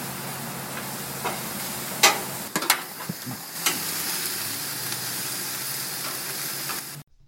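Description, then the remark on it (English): Lamb sizzles on a barbecue grill in a steady crackling hiss, with a few sharper pops and spatters breaking through before the sound cuts off abruptly. “barbecuing up some lamb drinking some Merlot.”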